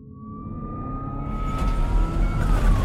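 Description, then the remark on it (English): An ambulance siren blares in a steady, sustained tone over heavy road rumble as the ambulance is jiggled around going over bumps, growing louder. No one speaks. “I just hear the ambulance like being jiggled around, going over all these bumps, and I hear the sirens blaring, and I hear the paramedic telling me, like, oh, wake up, like, wake up, wake up.”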